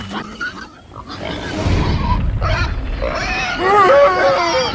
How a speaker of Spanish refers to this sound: Había a cierta distancia una gran piara de puercos pasiendo.